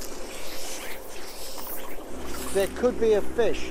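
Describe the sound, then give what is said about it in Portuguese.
A boat moves across the water of Loch Arrow, a lake on the northwest coast of Ireland known for fishing, with a steady rushing wash and wind; a low engine drone joins partway through, and brief voices come in near the end. “É de barco que vamos conhecer o Loch Arrow, um dos lagos mais conhecidos para pescar no país.”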